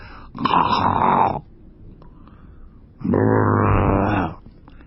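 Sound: voice imitating snoring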